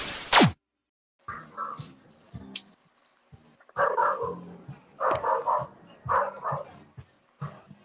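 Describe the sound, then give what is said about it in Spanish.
A pack of dogs barks and yelps in overlapping bursts after a brief swooshing sweep, the clustered barking coming in several loud waves with short pauses between them. “Se soltó la jauría.”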